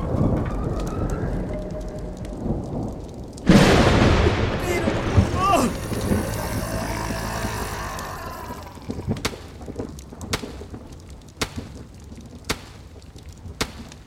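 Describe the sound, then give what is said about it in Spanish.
Over steady rain, a sudden, loud lightning crack strikes and kills a snake, followed by heavy rumbling thunder that slowly fades. A few sharp crackles and pops follow. “¡No se me escapó! ¡El rayo la mató!”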